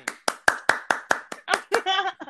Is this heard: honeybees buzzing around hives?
no